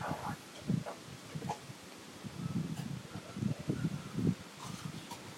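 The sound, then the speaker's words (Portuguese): Outdoor ambience in an open, sunny place with some dogs present: a steady wash of wind and trees' leaves rustling, punctuated by soft low thumps and gusts that rise and fall throughout. “Nós estamos num local aberto, no meio do vento, do sol, junto com alguns cachorros, barulho das árvores.”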